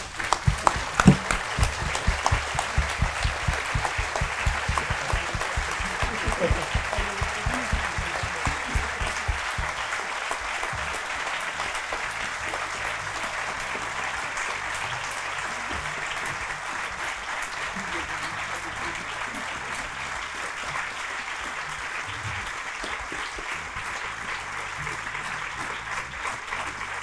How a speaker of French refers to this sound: Et je vous demande à tous maintenant de vous lever pour applaudir